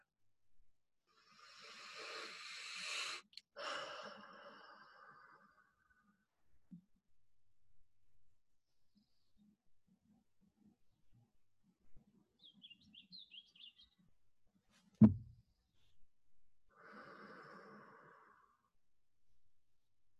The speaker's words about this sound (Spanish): Y así te invito a que Tomemos tres respiraciones lentas y profundas, inhalando por la nariz y exhalando por la boca.